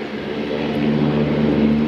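A seaplane's propeller engine drones steadily and loudly for the whole clip as it lands on a bay, a low humming rumble with a faint rising tone and no voices.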